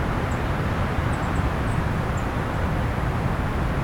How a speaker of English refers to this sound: That might be hard to hear because it's a little windy.